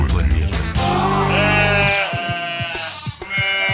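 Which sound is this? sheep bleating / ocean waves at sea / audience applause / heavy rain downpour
sheep bleating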